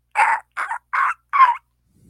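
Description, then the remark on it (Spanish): Four harsh, raspy calls from a flock of vultures lying in wait ring out one after another at a steady pace, loud, with no other sounds between them. “Mientras una parvada de buitres acecha.”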